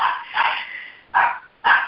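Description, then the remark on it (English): A dog barks loudly, about four sharp barks in quick succession, the first ones run together before two separate yaps, with no one talking. “Uh, wish I could mute my dog.”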